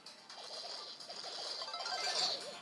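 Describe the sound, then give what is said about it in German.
A toy gives off a quick run of bubbling, warbling bursts, one after another, over a steady hiss; each bubbling burst is the toy shooting off a round of ammunition in rapid succession. Moderately loud, with no talking. “Also ihr habt gehört, er, also immer wenn es so blubbert, hat er halt eine Munition weggeschossen.”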